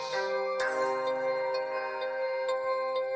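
An electronic music track by a producer from Russia, made with default FL Studio sounds, plays on its own, with sustained, bright synth chords layered over a low bass tone and light, evenly spaced ticking percussion hits, fairly loud and steady throughout.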